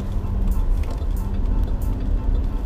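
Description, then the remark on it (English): A bus's large diesel engine idles steadily, a constant low rumble with a faint hum, interrupted now and then by brief hissy clatters, while the bus sits stopped without moving. “Okay, now what's wrong with this bus? Just sitting here.”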